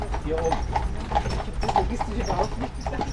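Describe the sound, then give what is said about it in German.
Horse hooves clip-clop in a steady, repeating rhythm from a horse-drawn carriage travelling between the castles of Hohenschwangau and Neuschwanstein, with a voice talking over the hoofbeats. “Von einem Schloss zum anderen kann man mit dem Pferdewagen fahren”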